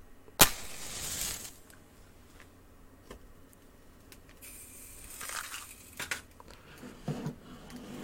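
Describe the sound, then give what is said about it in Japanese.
A match is struck with a sharp scrape to light an alcohol lamp for brewing coffee, followed by a brief fizzing hiss as it flares, then quieter rustling and faint handling sounds with no one talking. “で、マッチ。マッチですね。”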